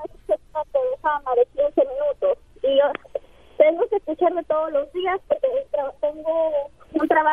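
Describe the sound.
A voice on a poor phone line, thin and band-limited with a tinny, muffled quality, speaking in choppy bursts that are hard to make out, as if the call is breaking up.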